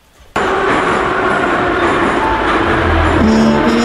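A metro train roars in abruptly and loudly, a dense rumble of wheels and carriage noise, with tonal motor whine emerging toward the end as it slows into the terminal station.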